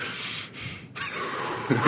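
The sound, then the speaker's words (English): A voice imitates a heavy, labored gasp: two harsh, noisy breaths drawn in, the second longer and rougher, ending in a throaty rasp. “That was the hardest labored breath I ever saw”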